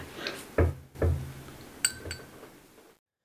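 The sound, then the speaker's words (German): Water being added to a whisky glass with a pipette: two soft low knocks, then two bright, ringing glass clinks a moment apart, all fairly quiet with no talking. “So, jetzt tue ich mir ein bisschen Wasser rein. Mhm. Mit Pipette hier.”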